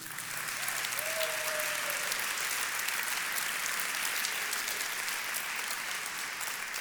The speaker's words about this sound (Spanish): Denle un aplauso al Señor.